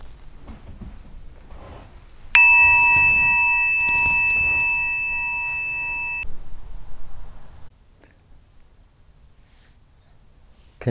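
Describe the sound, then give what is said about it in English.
A single meditation bell is struck once, ringing out clear and bright with a long, steady, sustained tone that slowly fades over several seconds, alone with no talking. “continuing with this contemplation and this pause offered by the bell just to check the practice side.”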